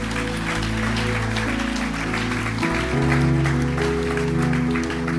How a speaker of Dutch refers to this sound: Come on, why don't we give all these guys a hand? laten we deze mensen een warm applaus geven.